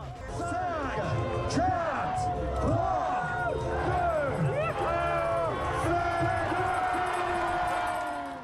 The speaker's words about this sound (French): Et puis là, l'ambiance de, Saint-Pierre qui monte, avec mes, on a l'impression d'être des stars de rock, quoi. C'est, il y, a des milliers de personnes qui hurlent, qui.